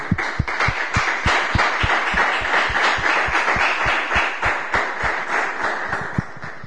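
Loud, sustained applause from a crowd for a young man and the poster he made for the radio programme Cofrado de Hispanidad Radio a la Gloria, just unveiled; a dense crackle of many hands with a steady, rhythmic pulse of heavier claps running underneath, and no talking.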